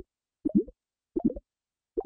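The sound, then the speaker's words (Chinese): Clams being boiled in a pot with the lid on, popping open: three short, hollow plopping bursts, each a quick cluster of low pops, spaced evenly with silence between them. “咔啦咔啦，锅子里传来了轻微的声响， 打开了。”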